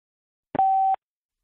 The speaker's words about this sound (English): Thank you for calling Beautiful Anonymous. A beeping noise will indicate when you are on the show with the host.